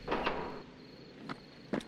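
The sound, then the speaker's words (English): A few footsteps land on a hard floor: two quick steps close together, a pause, then two more spaced out. They are soft, and nobody speaks. “A third set of footsteps.”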